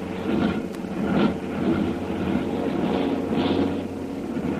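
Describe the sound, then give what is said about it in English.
A heavily loaded propeller plane's cold engines drone steadily, one engine starting to misfire, the rough, uneven roar swelling and sputtering now and then as it labors to climb, with no voices present. “Those motors are cold. One of the motors there is starting to miss.”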